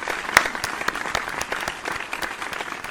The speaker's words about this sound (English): Um, but yeah, thank you very much for everyone, and let's just give everyone a round of applause for this giveaway.